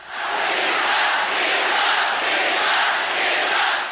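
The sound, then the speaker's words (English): A large crowd at the 2008 Beijing Olympics tennis quarterfinals cheers and roars loudly and steadily as a Chinese player upsets Venus Williams, a dense wash of voices with gentle swells in intensity, sustained throughout with no individual words standing out. “And the crowd went wild.”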